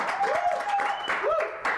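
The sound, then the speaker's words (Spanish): A crowd applauds a music group being introduced, a steady dense wash of clapping with a few faint whistles and cheers rising above it, fairly loud throughout. “Si yo les doy un aplauso. apláudanle aquí.”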